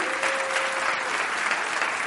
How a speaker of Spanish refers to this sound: ¿Le das un aplauso a Jesús con todo tu corazón?